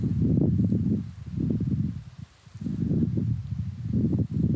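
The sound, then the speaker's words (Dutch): Steady outdoor wind rushes and gusts, rising and falling in waves with a soft rustle of leaves, moderately loud, with a brief lull midway, in fine weather with a few clouds. “En wind.”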